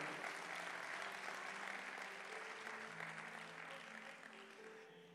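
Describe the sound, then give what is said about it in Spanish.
An audience applauds the Lord steadily, a dense wash of many hands clapping with faint tonal music or voices underneath, gradually tapering off toward the end. “Vamos, si usted lo cree, denle un aplauso fuerte al Señor.”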